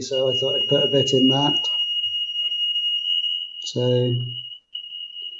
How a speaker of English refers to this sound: sorry, that's my smoke alarm going